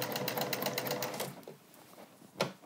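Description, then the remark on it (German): A sewing machine stitches a zigzag seam attaching lace, the lace being pulled out as it sews, in a fast, even run of mechanical clicks for a little over a second, then slows and stops, with a single sharper tap near the end. “So, und jetzt schaue ich halt, dass ich so ein bisschen die Spitze immer so rausziehe, dass die sich nicht so versteckt.”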